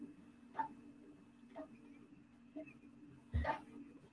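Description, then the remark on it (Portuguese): A printer running quietly: a steady low mechanical hum broken by short clunking bursts about once a second, with a louder burst near the end and no voices. “Lá está, eu já disse, oh meu Deus, a impressora está a funcionar.”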